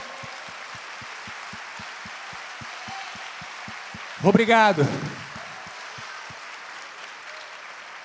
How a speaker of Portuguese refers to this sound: Vamos aplaudir ao Senhor.